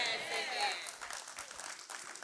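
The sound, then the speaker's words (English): A church audience during a sermon calls out 'amen' together in a swell of voices, then breaks into scattered, steady applause for a couple of seconds. “Come on, could I have a better amen today?”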